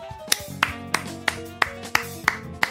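Audience applause as sharp, evenly spaced hand claps, about eight in a steady rhythm, fairly loud, over a sustained tonal musical backdrop with no talking.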